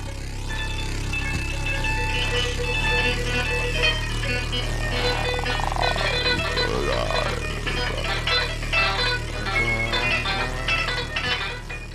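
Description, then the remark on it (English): Loud, dense noise music made by knocking and breaking objects, with clattering knocks and crashing, breaking-object sounds over a sustained droning hum and harsh tones, growing busier and more percussive toward the end. “I feel like I have to step in here real quick to play some noise music because it's a genre of music that's big in Tijuana and all of Baja and somewhat in San Diego too.”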